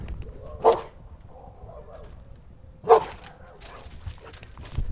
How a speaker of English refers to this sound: And the dog, I think the dog has a tip too. He's, he's barking right now. So, we'll just, uh, we'll tune in for a second.